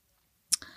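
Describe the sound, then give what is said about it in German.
Pages of a long letter being turned: after a moment of silence, two quick crisp papery rustles follow one another, fairly soft, with no voices. “Ähm, Entschuldigung, ich muss schon wieder blättern.”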